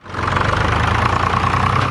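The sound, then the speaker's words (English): A tractor engine idles steadily on a farm, a low, continuous rumble with a faint rhythmic chug that holds at an even loudness throughout. “cows, farmers, and even tractors.”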